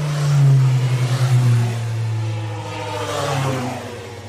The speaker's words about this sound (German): So, jetzt kommen die nächsten Motorradfahrer.